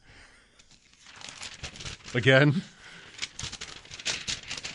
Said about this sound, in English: That's not even me and shuffling paper right now. That's just my fingers making this noise. I'm just so jittery about it, and oh, I should settle down.